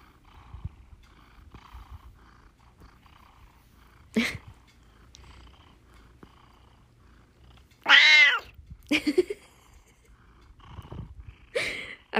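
An old house cat lets out a very loud, drawn-out meow, followed by a few shorter meows, against a quiet background with faint low murmuring.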